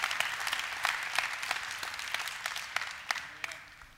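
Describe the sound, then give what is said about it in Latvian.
An audience applauds steadily, many hands clapping in a dense, crackling wash with a few sharper individual claps standing out, fading slightly toward the end. “Dosim aplausu viņam!”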